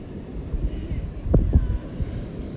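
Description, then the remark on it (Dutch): Steady wind buffeting the microphone over a low, rolling wash of waves at the beach, with a couple of brief louder gusts or thumps midway through the rumble. “Dus, we zitten nu aan het strand. Ik ga eens even kijken of we een podcast op kunnen nemen aan het strand. Terwijl het waait en de golven geluid maken.”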